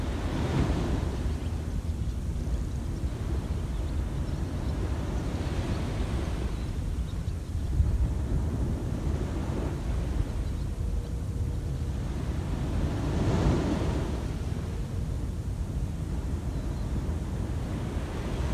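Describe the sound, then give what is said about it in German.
Ocean waves break steadily on a shore, each swell rising into a broad wash of surf and receding, with a constant low roar and some wind underneath and no voices. “der Atem fließt, wie auch die Wellen ihren Lauf nehmen.”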